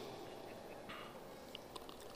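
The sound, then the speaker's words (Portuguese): Someone finishes drinking a glass of water, sipping and swallowing with quiet wet gulps and a couple of small mouth clicks over a soft, steady background hiss. No one speaks. “Eu vou até terminar minha água aqui Para você não achar que eu estou mentindo, eu vou tomar aqui para você ver.”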